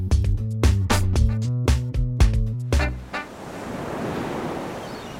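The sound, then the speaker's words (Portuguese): A short musical phrase with plucked, bell-like notes ends, then steady beach ambience takes over at a sunny, windy beach in Ilha Bela: a broad wash of surf and wind, moderately loud and continuous, with no voices. “Ufa, finalmente um episódio na praia, pé na areia, vento na cara, solzão na cabeça.”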